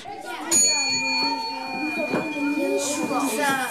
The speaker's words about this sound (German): Dort steht auch die Klangschale, das Zeichen für alle leise zu sein. Ich benutze sie oft.